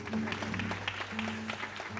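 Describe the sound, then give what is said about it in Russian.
An audience applauds the dancers of a stage performance of Bolero with dense, continuous clapping that holds steady for about two seconds, a low steady hum running underneath. “Ваши аплодисменты, аплодисменты.”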